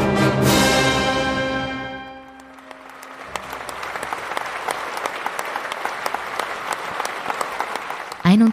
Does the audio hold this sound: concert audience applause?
yes